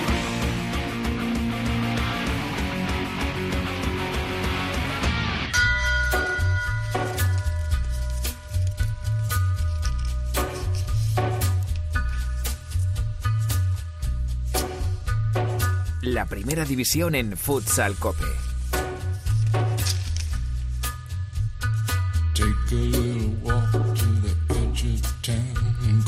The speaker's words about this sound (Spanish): Bueno, habrá muchísima gente que se le haya puesto el vello de punta con esta melodía, con esta sintonía, que es la de Peaky Blinders